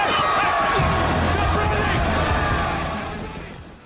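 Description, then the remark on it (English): A loud, dense rioting crowd in a film scene roars and shouts together in a chaotic wall of voices, with thuds and clatter underneath, sustained before fading slightly at the end. “When the riots break out, the power of those scenes, as you'll hear in this clip, is explosive.”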